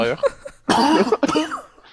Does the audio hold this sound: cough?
yes